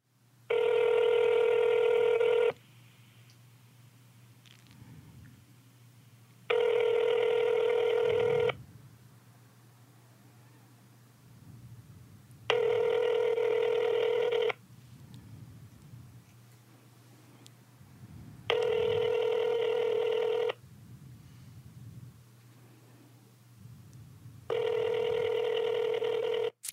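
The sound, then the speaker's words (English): A phone ringback tone sounds in five evenly spaced bursts of about two seconds each, separated by pauses of low hum, as a call to a father rings unanswered. “hella rings, right?”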